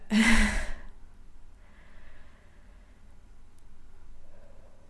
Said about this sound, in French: je vais respirer un petit peu parce que là, je suis un peu bloquée